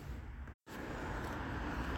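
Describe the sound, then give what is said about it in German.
Steady road noise from inside a moving car being driven out of Bruges to park outside the town, a continuous low rumble and tire hiss, broken by a brief silent gap near the start. “deshalb hole ich gerade das Auto und fahre damit jetzt aus dem Ort raus und parke dann draußen.”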